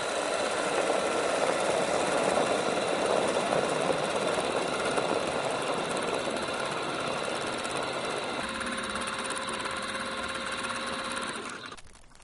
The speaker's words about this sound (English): What we do next is to lower the stirrers down, just like in a food processor. Then we begin the test program by pressing Start Measurement.